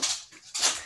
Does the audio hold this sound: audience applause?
no